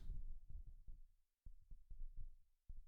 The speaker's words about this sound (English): So how does uh, it sound? The low F sharp.